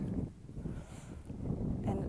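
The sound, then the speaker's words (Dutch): Steady low rumbling buffet of wind hitting the microphone outdoors, surging slightly and continuing throughout without any clear voices. “het waait nogal hier, dus ik probeer even een uh, eh, luwe plek te zoeken.”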